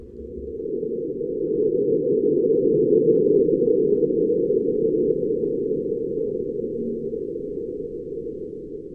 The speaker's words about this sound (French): Mais c'est le bruit d'un tremblement de Mars, là. Ouais. C'est tel que perçu par une sonde, là.